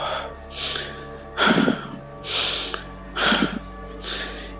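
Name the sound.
voice imitating heavy breathing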